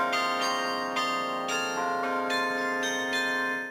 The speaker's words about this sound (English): And the wires come into this playing room, which is situated inside the belfry, uh, and each bell, each clapper, each wire attaches to its corresponding key or note. And so there are a lot of arrangements made for carillon music.